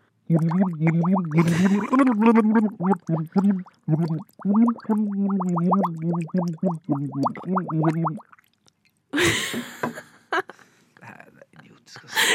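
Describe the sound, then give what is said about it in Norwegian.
A voice sings karaoke with the face underwater, a wavering melody muffled and bubbling for about eight seconds, followed by a burst of splashing and gasping noise. “Ok, fjeset under vann. Nå begynner jeg.”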